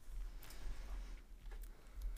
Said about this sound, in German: Weißt du, was ich jetzt gerade mache? Du schlägst deine Finger gegen dein Mikrofon? Nee, ich schlag gegen eine Wasserflasche.